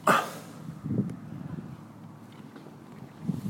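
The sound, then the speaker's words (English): Low, uneven rumbling and buffeting from wind hitting the microphone on a dock by a lake, with a harsh gust at the start and softer puffs afterward; no voices are heard. “Turn this way, it's better for the wind.”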